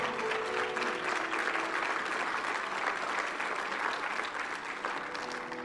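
A church audience applauds steadily for the Lord for several seconds, a dense, even wash of many hands clapping with no pauses and no voices standing out above it.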